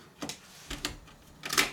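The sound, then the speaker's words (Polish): A cassette is slotted into the second cassette compartment of a tape deck and the lid is closed by hand, giving three sharp plastic clicks and clacks spaced across the moment, fairly crisp against a quiet background. “kasetę i zamykam klapkę.”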